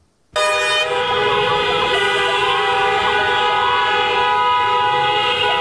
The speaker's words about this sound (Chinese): 喇叭声此起彼落，在总统府前响不停，一度造成交通打结。在野党发起要疫苗快闪活动，实在是因为疫苗空窗期让民众焦虑到不行。